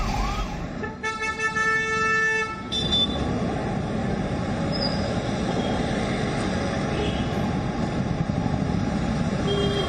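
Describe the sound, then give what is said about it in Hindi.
Heavy road traffic in a jam rumbles steadily, with a loud, sustained vehicle horn blaring for a couple of seconds near the start, then the dense engine noise of jammed vehicles carrying on. “देर से जाम में फंसे हैं आधा घंटा कहाँ जाना है आ रहे मैं कुछ रास्ता नज़र आ रहा है सारे उधर से बंद तो सब इधर से आए हाँ क्या क्या उम्मीद लग रही है अब देखो पूरा है तो जाम निकला देखो भाई अब जैसे निकल रहे निकलेंगे”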